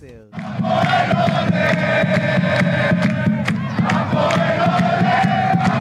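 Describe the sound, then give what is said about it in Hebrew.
Football fans with flags and green shirts shout and chant together, hoping for victory at a match of a supporters' club team, in a dense, steady roar that starts abruptly and stays loud throughout, with voices rising in sustained, tuneful cries over the crowd noise. “לבוא מלמטה עם הדגל והחולצה הירוקה, לצעוק ולקוות לניצחון.”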